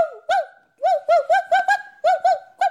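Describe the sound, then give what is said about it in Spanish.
Loud birdsong at dawn: a rapid series of bright, repeated chirping notes in quick bursts, with no one talking. “Amaneció ese día con el canto de los pájaros tan fuerte que hasta el cachorro dormilón de la casa despertó de un salto y comenzó a ladrar.”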